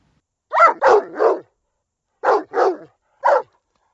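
A dog barks in two quick bursts: three sharp barks in a row, a pause, then three more, loud with no talking.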